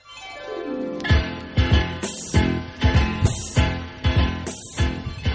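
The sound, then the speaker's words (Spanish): The upbeat theme song of the children's cartoon La abeja Maya (Maya the Bee) plays loud, with punchy drum hits every half second or so and bright, full instrumentation throughout. “¿Podemos volver a escuchar em, a la abeja Maya para ver que es la misma canción?”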